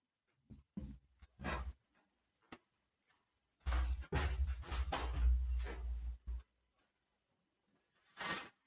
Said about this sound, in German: Und ja, ich gebe, ich würde dir und allen gerne mal eine Sekunde Zeit geben, dem nachzusinnen, während ich hier aufstehe und meine Vorhänge zumache, weil in Hamburg echt mal die Sonne so scheint, dass sie genau in meinem Gesicht ist.